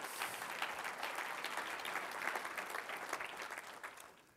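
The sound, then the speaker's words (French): An audience breaks into sustained applause to the Lord for the souls saved in Quebec in 2013, a dense, steady wash of many hands clapping for several seconds at an even level, with no voices standing out. “Comment une bonne main d'applaudissement au Seigneur, les âmes sauvées au Québec en 2013.”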